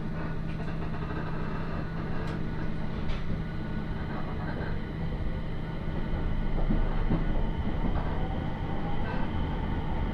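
Steady low rumble of a one-man Aoimori Railway local train running on the rails from Aomori to Noheji, Japan, heard from inside the carriage, with a constant hum and faint rhythmic clacks and rattles throughout, no voices.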